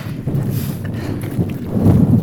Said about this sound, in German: Weiter oben herrscht Sturm. Gewiss, der Aufstieg schenkt mir wunderschöne Blicke auf die Bucht und ins Umland. Aber die Hauptrolle, die geht heute definitiv nicht an die Aussicht, sondern an den Wind.